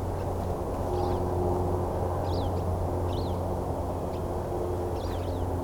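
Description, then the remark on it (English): Short, thin, harsh pew calls from two siskins circling in flight sound every second or so, a few in quick pairs, faint over a steady, loud low rumble like an engine or wind. “And they have this pew pew call.”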